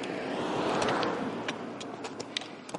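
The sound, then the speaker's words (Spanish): A car passes by, its broad rushing noise swelling to a peak within the first second and then fading away, with a few faint clicks near the end. “Es un coche pasando.”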